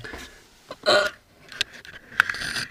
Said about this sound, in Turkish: Boşuna gitti esnemen gene.